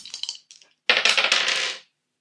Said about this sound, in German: Dann würfel doch mal 2W6 plus 1 für deine Gemütsruhe.